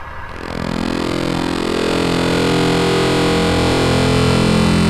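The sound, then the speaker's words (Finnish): A buzzy electronic synthesizer drone, made by synthesizer software installed on an electronic event badge, fades in and then holds steady and loud, its rich layered tones humming continuously with slight wavering and no voices. “Tämä ääni, jonka sä kuulet nyt, tulee tapahtuman kulkuläpyskän syövereistä.”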